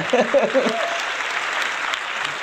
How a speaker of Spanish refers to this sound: ya, gracias muchachos. Muchísimas gracias. Híjole, de veras se agradecen los aplausos